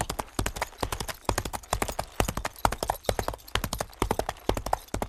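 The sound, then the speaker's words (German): Horse hooves gallop in a fast, steady rhythm of sharp clip-clop strikes that repeat in quick clusters for the whole stretch, with no voices over them. “Ähm, ich finde eigentlich alle Gangarten schön, aber Galopp ist halt ähm, so was Besonderes, das macht man nicht oft, deswegen mag ich Galopp sehr gerne.”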